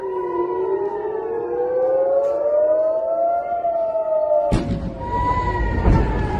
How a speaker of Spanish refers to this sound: De momento, de estos días, además de la actividad militar israelí contra infraestructuras aeroportuarias en Siria, nos quedan también sonidos como el de las sirenas sobre el aeropuerto de Tel Aviv.